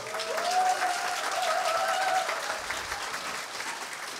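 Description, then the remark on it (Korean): An audience breaks into sustained applause, a dense wash of many hands clapping steadily for about four seconds, slightly tapering toward the end, with a faint voice or tone briefly rising in the middle. “박수 좀 쳐주세요.”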